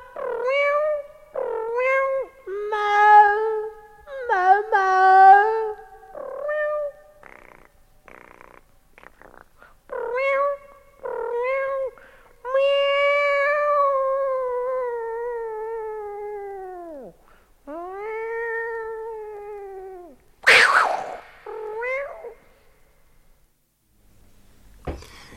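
A cat meows over and over, loud, with a string of short meows followed by longer, drawn-out wailing calls and no one speaking.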